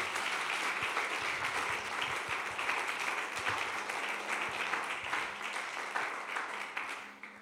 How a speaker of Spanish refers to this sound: Démosle otro aplauso al Señor, por favor.